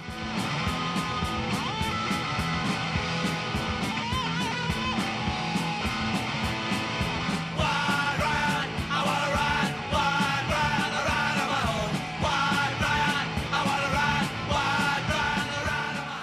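A raw 1977 punk rock recording plays loud and steady throughout, with driving drums, buzzing distorted guitars and shouted vocals packed into a dense, energetic mix.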